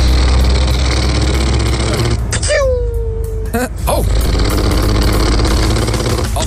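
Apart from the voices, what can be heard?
truck engine running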